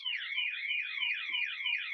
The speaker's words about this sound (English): As my wife sets off the house alarm, I tell you, first it was uh, falling paper towel on the podcast live, and now my wife is setting off the house alarm.